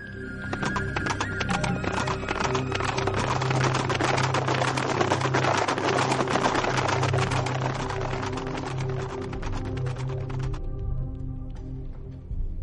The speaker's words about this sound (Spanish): Cayo y Quinto regresaron a su campamento a uña de caballo.